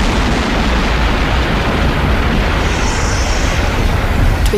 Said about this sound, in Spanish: Comenzar con los imponentes sonidos geológicos de la formación del planeta.